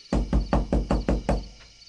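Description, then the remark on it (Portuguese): Six firm, evenly paced knocks on the wooden door of a house at night, loud with a deep hollow thud, followed by a brief fading pause and no voices. “Vamos, abra a porta! Preciso de um dos seus livros.”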